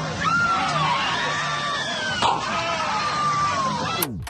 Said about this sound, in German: hier ist der äh, berühmte europa achterbahn schrei zu hören. Ich spiele ihn mal kurz ein.